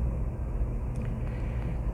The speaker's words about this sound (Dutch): ik zit hier in de auto uiteraard.